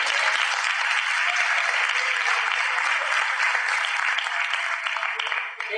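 Steady, dense applause from an audience fills the whole clip, a broad crackling wash of many hands clapping at an even loudness that tapers only slightly at the very end.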